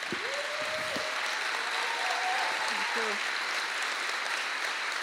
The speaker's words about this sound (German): Und als die Frau auf die Bühne tritt, die gerade einen revolutionären Impfstoff für die Welt entwickelt hat, ist der Applaus und ja, die Dankbarkeit riesengroß.